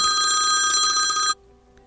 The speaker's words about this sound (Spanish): ¿Quién nos llama? Ah, ¿Quién nos llama? Teléfono de la cabina.